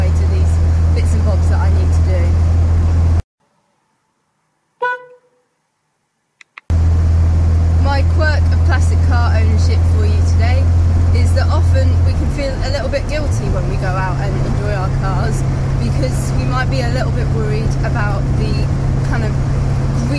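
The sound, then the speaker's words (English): A classic car engine drones steadily with road noise inside the cabin on a longer drive on a lovely early spring day while someone talks over it; a short silent gap interrupts early on, and the engine note shifts midway. “But primarily, I'm making the most of the fact that this is a lovely day um, in what's kind of early early spring, late winter, and um, just having a, a bit of a longer drive on”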